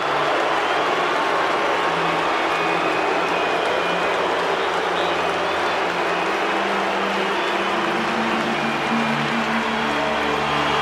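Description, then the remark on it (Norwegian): A huge arena crowd at Madison Square Garden boos without letup as a female singer takes the stage at a tribute concert, a deafening, dense, roaring wall of voices with low, drawn-out groaning tones swelling and shifting across the whole stretch. No one speaks over it. “Når hun entrer scenen i Madison Square Garden for å synge en av hans sanger, møtes hun av et øredøvende og evigvarende buekor.”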